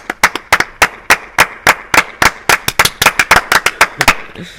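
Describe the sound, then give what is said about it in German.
Loud applause of sharp, rapid claps in an uneven rhythm, roughly twenty in a few seconds, with no talking over it. “Darauf machen wir jetzt einen dreifachen aber nicht, Applaus.”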